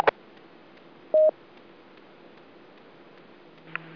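A single short DTMF dual-tone beep from the keypad on a radio microphone, used to make Morse code on a radio, sounds clearly over faint background hiss. It is preceded by a click and followed near the end by another brief faint blip.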